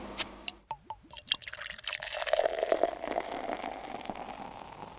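Beer pours into a glass: a few sharp clinks and glugs at first, then a steady foamy fizzing hiss that builds and keeps crackling softly. No one speaks.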